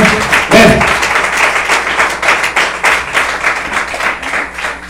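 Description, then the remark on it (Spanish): A church audience claps their hands for the Lord during a sermon in a dense, steady wave of applause, loud and continuous, with a brief swell of voices near the start. “la forma de palmas al Señor, pues con todo su corazón.”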